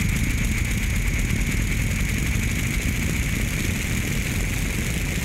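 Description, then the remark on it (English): Toward the end of a song, a loud, dense wall of distorted noise, a shuffle beat dissolved into a roaring, droning texture with steady high tones and a rumbling low end. No voices and no distinct rhythm break through. “This is the shuffle beat just becoming um, something else entirely.”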